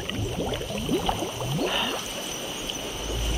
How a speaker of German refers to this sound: Aber äh, von wo kommt plötzlich die warme Luft und all der Nebel? Hallo, was ist das für ein Blubber?